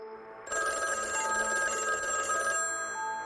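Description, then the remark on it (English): A telephone bell rings in one loud, continuous burst lasting about two seconds, its metallic clatter filling the space before cutting off, leaving a faint residual hum with no voices. “I picked up the phone and said hello.”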